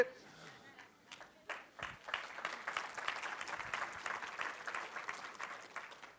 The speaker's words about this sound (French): C'était comme un applaudissement de résignation. Est-ce qu'on peut donner une vraie, vraie main d'acclamation?